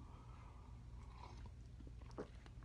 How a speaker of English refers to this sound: Let's take another sip of coffee and let's get on with the show.